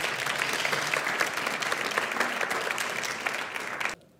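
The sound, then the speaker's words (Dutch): A church audience claps steadily for about four seconds to welcome a speaker to the front, a dense, even patter of many hands at a consistent loudness, then stops abruptly. “Dus eh, ik wil je vragen om een applaus te geven”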